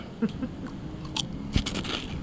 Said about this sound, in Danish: Og jeg får jo vanen tro øh, de her chips, den blå bistro chips, som jeg er blevet en ret øh, stor fan af. Øh, specielt den her lyd, som jeg lige vil øh, præsentere. Øh, jeg tager lige noget af det her, det her dip.